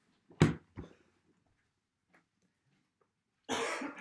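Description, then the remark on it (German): Two sharp coughs in quick succession, a quiet pause, then a longer, rougher burst of coughing or throat clearing near the end. No talking. “Kurze Hustenpause.”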